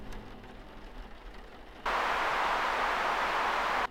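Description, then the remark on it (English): A low, murky radio hiss suddenly jumps into a loud burst of harsh static for about two seconds, then cuts back down abruptly as someone tunes through radio channels with horrible reception. “it's horrible reception but you guys can understand at least a few words and it's very interesting because he's going through some of the radio channels and he goes into the CBC radio and uh, interesting reports are going on on it.”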